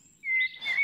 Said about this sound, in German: Amseln lassen sich gern mal neue Tonfolgen einfallen und bauen sie ein, womöglich um den Reviernachbarn zu beeindrucken. Dieser aber will auf keinen Fall ins Hintertreffen geraten und ahmt den neuen Schnörkel dann nach.